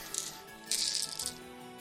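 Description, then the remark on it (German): Dice rattle and clatter against each other in bursts as they are fetched for a tabletop role-playing game, a brief shake followed by a longer clattering spell, fairly quiet, with no voices. “Stell kurz, ich muss äh, mir Würfel holen.”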